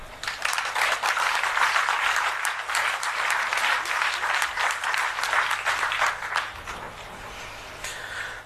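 Sustained applause from an audience, dense overlapping claps at steady strength for several seconds before thinning out toward the end, with no one speaking.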